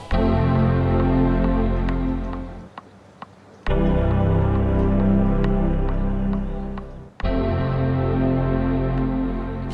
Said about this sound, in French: Ou plutôt des sons de démarrage d'ordinateurs. 45 ans de sons de démarrage et autres bruits mythiques issus des différentes générations de Macintosh, transformés en notes et montés sur GarageBand bien sûr.